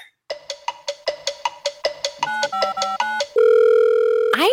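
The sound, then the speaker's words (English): Telephone sounds of a call placed to Chris Berman of ESPN: a rapid run of bright electronic ring chirps, then a quick series of keypad dialing beeps, followed by a steady, loud dial tone held for about a second. “wanted to call this episode Phone a Friend because I thought we should phone an old friend of mine.”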